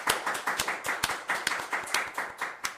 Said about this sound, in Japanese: 普段ね配信してこんなに拍手とかないんで 最高、ね、最高に楽しいですね